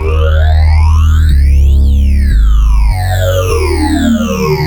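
A loud, sustained synthesizer tone with a sweeping flanger effect, its harmonics swooshing up and then back down like a jet passing, while the low notes step through a few changes. No one speaks.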